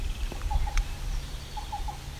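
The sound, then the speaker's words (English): A black-billed cuckoo, sitting in the open, calls twice, each a quick triplet of soft, hollow, evenly pitched coos, over a low steady background rumble. No one speaks. “So we got a black-billed cuckoo.”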